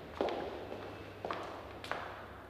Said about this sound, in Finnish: Kävelemme yhdessä portaat ylös.